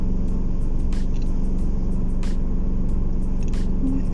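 Steady low rumble of a car engine and tyre noise on the road, heard from inside the vehicle while driving after a delivery, with occasional faint ticks and clicks over the continuous drone and no one speaking.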